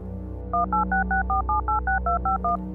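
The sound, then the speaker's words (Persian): A rapid run of about twelve mobile phone keypad tones as someone dials a number, each a short two-pitch beep in even rhythm, clear over a low steady hum, with no talking. “اون لحظه ها هزار بار دعا می کردم که وقتی بهش زنگ میزنم جواب بده با ترس و لرز شمارش رو گرفتم”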